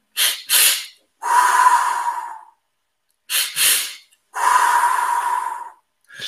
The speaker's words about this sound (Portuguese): Existe também a respiração do fogo, que implica dois movimentos inspiratórios rápidos e depois um expiratório mais lento, algo do género.